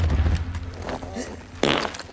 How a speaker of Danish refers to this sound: Oh yes. De sidder fast i et rør. Og så det var prutter, sjovt. Så prutter ja.